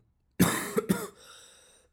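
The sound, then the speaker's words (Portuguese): A brief coughing fit: two or three harsh coughs in quick succession, trailing off into a strained, voiced throaty sound before going quiet. “Então, ehm, estou um, cheio de tosse, pá.”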